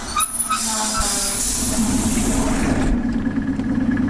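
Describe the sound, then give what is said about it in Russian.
A suburban electric commuter train arriving at Dmitrov station rumbles steadily, with a low droning hum, a hiss of air and brake-like squeals that fade partway through as the train settles. “Ну, собственно, мы уже приехали, и вот первое, что видят туристы, и мы в том числе, которые прибывают в Дмитров на электричке, это очень симпатичное здание Дмитровского вокзала.”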